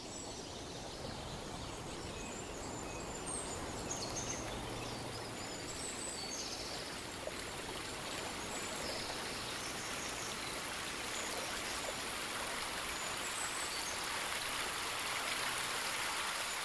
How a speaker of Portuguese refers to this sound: chegamos a um pequeno córrego que deságua numa lagoa rodeada por flores dos mais variados tipos e cores.